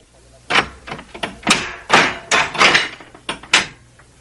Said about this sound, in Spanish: Paje, abre la puerta de la casa de mis tesoros.